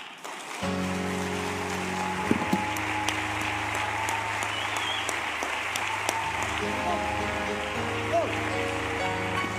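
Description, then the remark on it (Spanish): An audience at a church worship service claps loudly and steadily for nearly ten seconds, a dense, continuous wash of applause over sustained low organ-like chords that enter just after it begins. “Aplauda, no haga tortilla, aplauda.”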